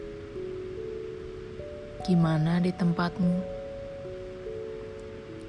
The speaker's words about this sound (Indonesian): Malam ini hujan turun dengan derasnya.